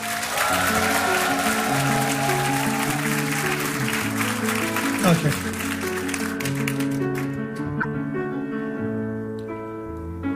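A live crowd at a concert claps and cheers loudly for the backing band while the band plays a sustained chord pattern underneath; the applause thins out over the last few seconds, leaving the music.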